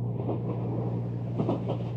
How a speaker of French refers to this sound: C'est quand t'es dans le train, ça, non Là, c'est un train, ouais. Ah, c'est relaxant, ça. un hein. sacré bruit de fond euh, derrière, non ça peut faire. C'est le moteur du train.